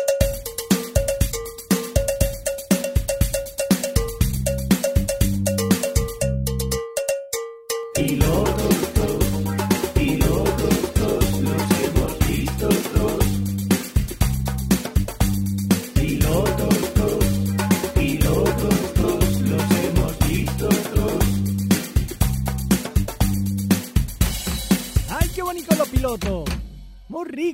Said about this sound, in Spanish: Es el momento ese tan bonito de escuchar la siguiente sintonía.